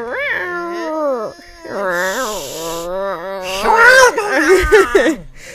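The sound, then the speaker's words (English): A human voice imitates cats about to fight, with long, wavering yowls that rise and fall in pitch. The loud yowling builds toward a harsher, more intense stretch near the end. “Can you imitate this sound of cats about to fight?”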